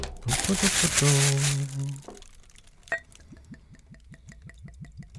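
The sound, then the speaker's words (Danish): Loud crinkling of paper wrapping being pulled off a bottle for about two seconds, with a brief voiced exclamation over it, followed by quieter rhythmic liquid sounds. “Jeg pakker ind i papir, det derfor, det ser så dejligt.”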